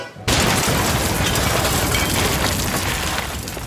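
A sudden, loud explosive burst erupts after a brief silence as a vat of hot, fermenting ale bursts after its iron rings rupture, then gives way to a sustained, dense roar of rushing noise that stays heavy until the end.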